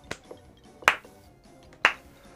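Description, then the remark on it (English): A slow clap: a few sharp, crisp claps spaced about a second apart, the first soft and the next two louder, with no talking. “I was like, are we doing the slow clap?”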